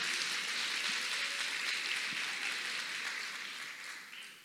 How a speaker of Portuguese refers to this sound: Aplaude que foi legal. Pode aplaudir.